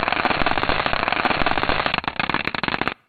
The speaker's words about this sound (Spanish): Tenemos el sonido de un cometa, si te vale. tenemos el sonido de un cometa, este es el sonido del cometa Tempel 1